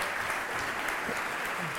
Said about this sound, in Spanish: Así que aplaudan a ella que, claro, no es María, pero